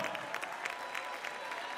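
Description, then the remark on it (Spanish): A church audience applauding together in praise to God during a service, a steady wash of many hands clapping with dense, bright crackle and slight rhythmic pulses, sustained and fairly loud with no clear voices on top. “Aplaudiéndole y con sus labios, sacrificio de alabanza ahora.”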